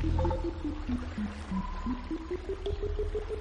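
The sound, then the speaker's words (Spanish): Steady flowing water rushes throughout in a video game, joined by a run of short electronic tones that dip lower and then climb back up in a quick, even sequence. “Nos sacamos el agua, nos quitamos de acá.”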